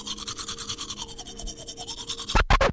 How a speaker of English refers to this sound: And apart from being white, it was also glowing, just like the room around them, and it was the only one emanating a sound. It sounded like someone brushing their teeth